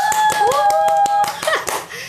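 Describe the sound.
Quick, steady hand clapping, a run of sharp claps at a brisk even pace lasting about two seconds, with voices calling out over the applause.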